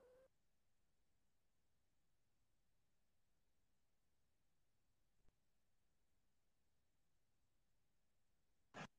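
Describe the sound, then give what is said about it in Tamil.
Online call audio cuts out into several seconds of near-silent dead air with only a faint hiss, broken by a brief click midway and a short burst of sound near the end. “அப்ப கேக்கல பேசுறது நான் பேசுறது கேக்குதா அடிபிளா இருக்கா இப்பதான் டாக்டர் கேக்குது இதுக்கு முன்னாடி கேட்கல”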